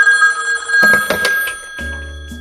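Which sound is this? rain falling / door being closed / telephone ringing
telephone ringing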